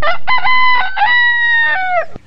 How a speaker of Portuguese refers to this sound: Em uma linda fazenda vivia livre e alegre o galo Mateu, que cantava lindamente e, como um galo que se preza toda manhã, se podia ouvi-lo acordando a todos com o seu lindo.